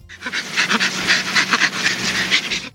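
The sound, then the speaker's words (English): Orangutan laughter: a quick, steady run of breathy panting pulses, rhythmic and fairly loud, continuing for a few seconds with no voices. “an orangutan, and the laughter of a rat”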